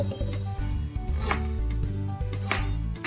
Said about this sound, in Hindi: और अभी अदरक की बारी इसको थोड़ा काटना पड़ेगा